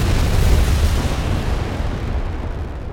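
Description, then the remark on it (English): Rocket engines roar at liftoff in a steady, powerful rumble with heavy bass and a rough crackling texture, staying loud throughout as the hiss above softens slightly toward the end. “Liftoff. We have a liftoff.”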